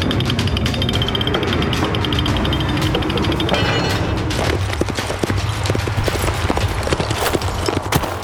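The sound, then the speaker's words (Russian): Horse hooves clip-clop steadily on a hard surface, fairly loud, with a busy rhythmic clatter continuing for several seconds and no voices present. “Лошадь не расседловой.”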